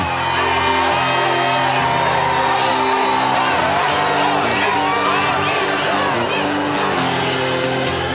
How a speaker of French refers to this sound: Des spectateurs ont aperçu leur idole. La rumeur se répand dans le stade. Il n'est pas sur scène et c'est déjà l'ovation.